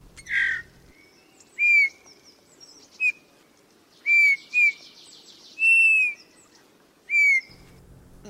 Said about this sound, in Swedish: Vi har ju på temat repetition är eh, lärdomens moder lärt oss gråsparv, blåmes och nu tänkte vi kasta oss ut och bara precis ta in ljudet av den gamle domherren. Varsågoda.